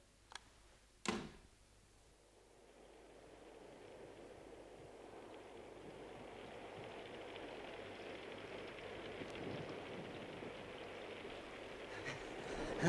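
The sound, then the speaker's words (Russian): After a couple of sharp clicks, a steady rushing hiss of rain pouring down swells in and keeps building, dense and continuous, growing heavier toward the end with no one speaking. “Ишь, дождь полил.”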